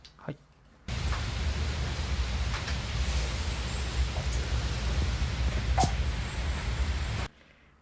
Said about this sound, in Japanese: はい、でこの鴨川の最初の一滴ちょっともうもう一回このめっちゃ神秘的なんで、はい、もう一回もう一回お願いします。